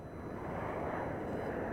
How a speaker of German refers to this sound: Das Flugzeug landet in Istanbul.